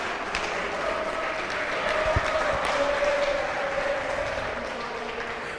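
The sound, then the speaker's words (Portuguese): Steady applause from a crowd applauding the Lord: a dense wash of clapping that holds at an even, fairly loud level for several seconds, with a faint sustained tone beneath it. “Vamos aplaudir o Senhor, por favor.”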